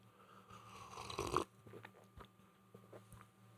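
food or drink, sipping beer

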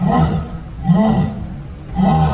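animal, jaguar roar

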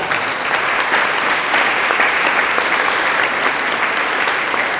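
crowd, audience applauding

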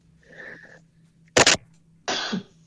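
human body sound, sneeze

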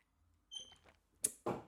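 food or drink, sipping coffee

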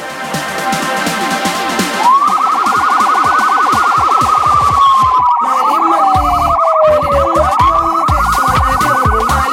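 signal or alarm, siren sound effect

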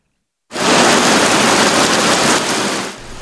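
nature, heavy rain pouring down

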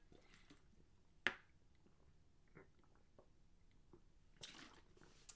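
food or drink, drinking water

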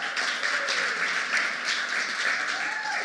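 crowd, round of applause

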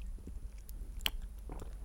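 human body sound, lip smacking mouth noises

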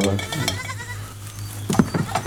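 animal, goat bleating

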